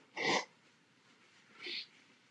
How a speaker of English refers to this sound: First, I'm going to blow my nose.